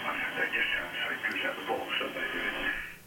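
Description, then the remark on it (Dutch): Shortwave radio reception on the 40 meter amateur band, with no filters applied: a steady, band-limited hiss of static with faint, garbled voice-like warbles drifting through, continuous and fairly loud, with no clear talk. “Het is gewoon puur het, eh, kale geluid dat binnenkomt.”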